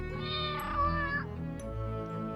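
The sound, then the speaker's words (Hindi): A cat standing on an open store-room window lets out a long, drawn-out meow, fairly loud, its pitch rising and sliding before trailing into a second, lower yowl, with no one speaking. “जहाँ किताबों का एक बॉक्स गिरा हुआ था और खिड़की खुली हुई थी जिस पर बिल्ली खड़ी थी जो रानी और तानिया की मम्मी को देख के भाग जाती है”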